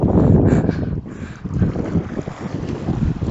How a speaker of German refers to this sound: ihr hört es sicherlich, das Rauschen. Und der Wind vermutlich.